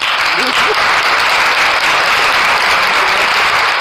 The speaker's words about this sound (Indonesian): Eh, podcast serem ada tepuk tangannya ya.